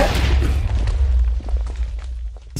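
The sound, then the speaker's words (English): A loud explosion sound effect, added in post-production to depict a corner of a room being blown up, bursts in right away, followed by a deep, rolling rumble with scattered crackles that slowly fades over a couple of seconds. No voices are heard. “we are gonna close it out today by by blowing up the YouTube corner”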